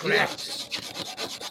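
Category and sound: household object, scraping on a laptop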